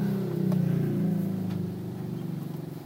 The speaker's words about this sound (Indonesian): aduh bentar ada knalpot nih berisik.